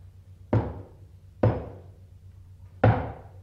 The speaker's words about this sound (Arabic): وفجأة سمعوا طرقا على البوابة